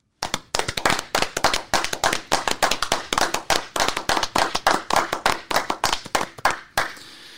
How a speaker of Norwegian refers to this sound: Det er jo faktisk sånn at det er veldig populært å ta en sånn applaus for disse folka. Så hvorfor ikke de gjøre det og avslutte med det?